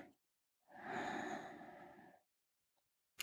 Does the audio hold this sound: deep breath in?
yes